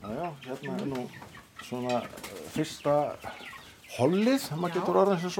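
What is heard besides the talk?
young hens clucking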